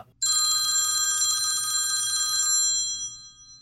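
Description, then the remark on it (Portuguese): An iPhone alarm with a loud, rapid old-style telephone bell ringtone rattles continuously for a couple of seconds, then cuts off and fades quickly, with no talking over it. “ele é tipo uma, um telefone antigo.”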